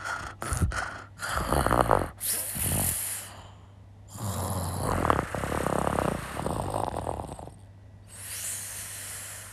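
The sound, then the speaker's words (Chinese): A person imitates their grandmother's snoring in her sleep with their voice: rough, rattling inhaled snorts and breathy exhales in a few loud, uneven bursts, with brief pauses between them. “我学学那个打呼噜。”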